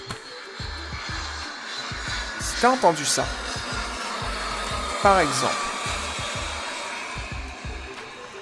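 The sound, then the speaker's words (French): A steady, loud airplane engine roar, a YouTube sound effect played at full volume, fills the whole clip without letting up, while a man talks briefly over it in the foreground. “Par exemple, je vais prendre le son d'avion, je vais mettre le son à fond.”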